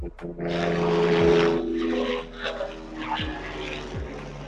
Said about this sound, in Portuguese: Tivemos aqui, só interrompendo, tivemos aqui passagem de um avião para atrapalhar o ah, programa. Ah, porra, que... É ataque aéreo.